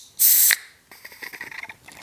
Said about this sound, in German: Oh. oh. Alarm! Die Dose ist übergeschäumt.